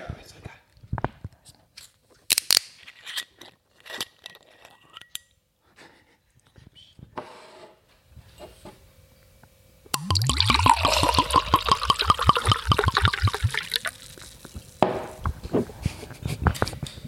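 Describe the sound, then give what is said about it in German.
Clicks, scrapes and small knocks as a non-sparkling wine bottle is opened, then several seconds of steady glugging as wine pours into a glass, the pitch rising as it fills. “Also ich mache jetzt mal den Wein auf.”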